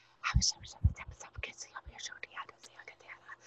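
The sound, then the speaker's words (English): A single voice imitates a jumble of twenty or thirty people whispering at once: rapid, breathy, hissing syllables tumbling over each other with soft low thumps, fairly quiet, no clear words. “And it would start at the top of my head and it would work its way down to the tip of my toes and it was like an atmospheric pressure, but it was also voices all talking at the same time, and they were like whispering, and it sounded like this.”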